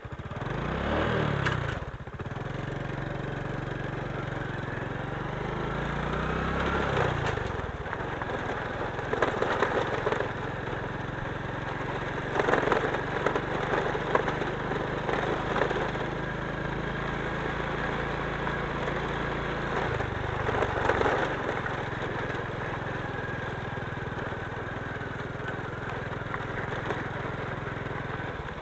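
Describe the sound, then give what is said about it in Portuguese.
A motorcycle engine runs loud for the whole stretch while riding along a road to find a school, revving up and easing off a couple of times early on before settling into a steady riding drone with wind rush. “Vou deixar aqui na sombra a moto.”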